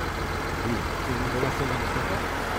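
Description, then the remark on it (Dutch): A stopped car's engine idles at the roadside during a police traffic stop, with a steady, continuous low rumble that holds at an even level throughout, with faint muffled voices mixed in underneath. “Je moet de motor even afzetten.”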